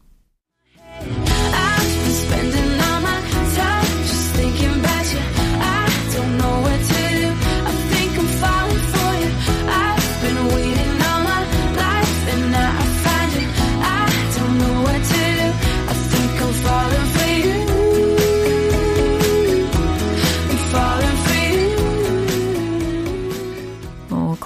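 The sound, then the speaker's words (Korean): A pop song plays loud and steady for about twenty seconds, a full band arrangement with a sung vocal melody over a steady beat, starting after a brief moment of silence. “반복도 여러 번 되고 하니까 훨씬 더 잘 들리실 거예요. 한 번 더 들어볼게요.”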